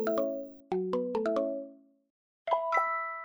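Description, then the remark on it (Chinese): A mobile phone ringtone plays a bright, bell-like melody of quick descending and rising notes, pauses briefly, then starts a second phrase, in the story 'The Maze Garden' (迷宫花园) as the dog detectives prepare to leave the old town; Dr. Dingding is calling. No one speaks. “当汪汪侦探准备要离开古城时，手机突然响起。”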